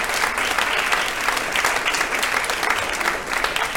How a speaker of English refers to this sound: Man, I wish you guys would applause like that for me.